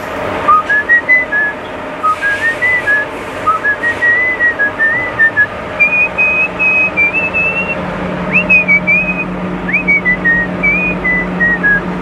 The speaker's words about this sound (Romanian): Dar ar fi frumos să ascultăm și piesa da, hai întâi cum, cum a fluierat el așa frumos.